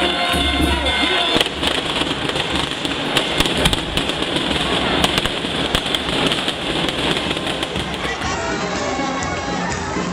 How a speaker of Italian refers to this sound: I fuochi sparavano in aria migliaia di bigliettini colorati che dipingevano il cielo